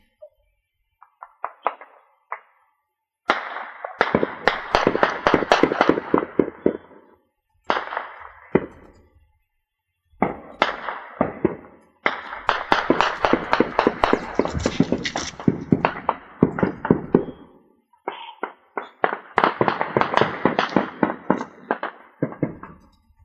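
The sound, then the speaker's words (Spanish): Sustained bursts of heavy-caliber gunfire during armed attacks, recorded by farmers in the municipality of Aldama in the Chiapas highlands, a few kilometres from San Cristóbal de las Casas: rapid shots packed into long volleys with brief pauses between them, loud, with no voices present. “se escuchan eh, armas de grueso calibre que se disparan constantemente de manera ininterrumpida.”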